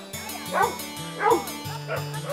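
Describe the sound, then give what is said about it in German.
Three Labrador dogs, aged between one and twelve years, bark playfully while playing with a frisbee and fetching balls, in a few loud, separate bursts spaced about half a second apart, with a low voice murmuring underneath. “Ihre drei Labradore zwischen einem und zwölf Jahren konnten gar nicht genug vom Spiel mit der Frisbee-Scheibe oder dem Apportieren von Bällen und Co. bekommen.”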